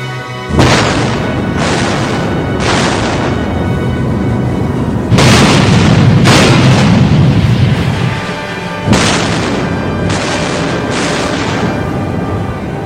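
Loud naval cannon fire and explosions in a sea battle, the Graf Spee's 280 mm guns firing on the British heavy cruiser Exeter, with about eight heavy booms arriving in quick clusters over a constant roaring rumble, powerful, with no voices.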